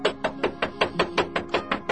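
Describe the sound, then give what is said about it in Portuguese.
Rapid, steady knocking on a door, a string of about fifteen evenly spaced raps over two seconds, moderately loud, with no voices. “Abre essa porta de uma vez, pô!”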